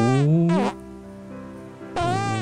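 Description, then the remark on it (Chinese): Cartoonish fart sounds from Little Red Riding Hood as she picks flowers by the roadside: three loud, buzzy bursts with bending, squeaky pitch, joined by a quieter low drone in the middle, with no talking over them. “他走啊走的路上遇到了在路边边放屁边摘花的小红帽。”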